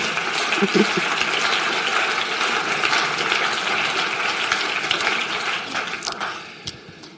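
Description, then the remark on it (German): An audience applauds, a dense, steady wash of many hands clapping that holds for about six seconds before thinning out and fading away. “Wir können ihm auch einen Applaus geben, genau.”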